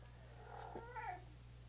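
A female domestic cat lets out one drawn-out, wavering meow lasting under a second, fairly soft, over a steady low electrical hum with no talking.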